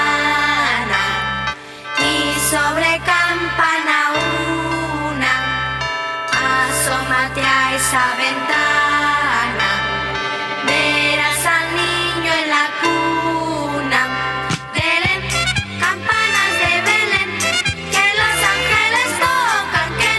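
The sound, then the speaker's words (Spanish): A Christmas carol plays loudly and steadily for the whole stretch, with rich sustained melody over a regular beat and no talking over it. “vamos a un corte musical para seguir con este villancico tan hermoso que nos puede llevar a hacer oración como lo estamos haciendo en este momento.”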